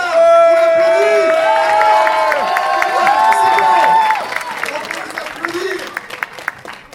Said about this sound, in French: On applaudit